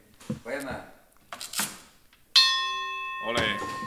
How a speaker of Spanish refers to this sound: tocar la campana. ¿no? Órale.